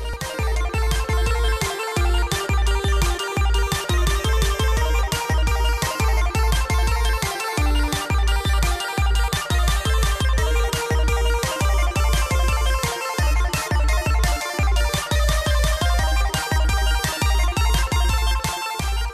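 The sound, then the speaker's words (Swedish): An upbeat intro jingle plays loudly on its own, a bright synth melody riding over a steady, punchy beat that keeps a regular rhythm for the whole stretch, with no voices. “Men du, vi rullar gingen.”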